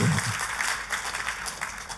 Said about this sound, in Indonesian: Dan kita kasih tepuk tangannya pula yang paling meriah buat Tuhan.